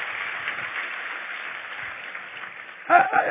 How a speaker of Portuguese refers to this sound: Fica tranquilo, vamos aplaudir o Senhor.